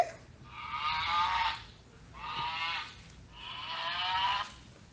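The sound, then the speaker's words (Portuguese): An ox moos three times in a row, each call long and drawn out with short pauses between, fairly loud, with no talking. “O primeiro a se apresentar foi o boi, mas logo foi recusado por fazer.”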